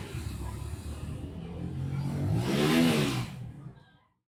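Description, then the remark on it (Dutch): Villagers on a street rev their mopeds' small engines, the buzzing whine climbing steadily to a loud peak before cutting off abruptly after about three and a half seconds. “De stoerste jongen rent schreeuwend achter het nijlpaard aan en anderen geven gas met hun brommers.”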